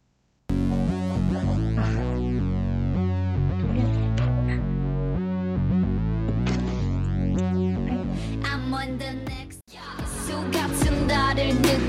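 A K-pop song plays loudly and steadily, with a heavy pulsing bass, layered synths and sung vocals, then a brief drop near the end before the beat crashes back in.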